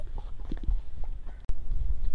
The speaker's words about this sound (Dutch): Ik moest even een mevrouw met een paard eh, voorbij laten. dat is altijd zo grappig.